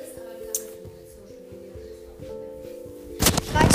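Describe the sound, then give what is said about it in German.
A video game TNT block explodes near the end with a sudden loud, noisy burst, following a steady tonal background hum with a few faint clicks. “Jetzt explodieren wir nochmal ein kleines TNT.”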